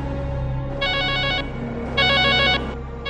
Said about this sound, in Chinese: 报警的电话铃声接连响起，打来电话的人语气分外急切。众多报警的电话都在诉说着同一件事。